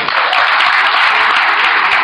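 Loud, sustained applause from a large audience, a dense continuous wash of many hands clapping, filling the whole moment without any voices on top.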